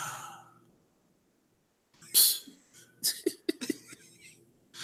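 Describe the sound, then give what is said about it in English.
Two people yawn at the same time: two breathy, drawn-out yawns, fairly loud, with a short airy exhale at the start and a quiet pause before the yawning begins. “We just yawned at the same time because I know this.”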